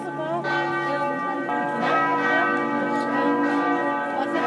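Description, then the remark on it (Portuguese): The bell of St. Nicholas Church in Leipzig, Germany, rings loudly and continuously, its long resonant tones overlapping and sustaining throughout, with faint background voices beneath the pealing. “Esse é o sino da igreja de São Nicolau.”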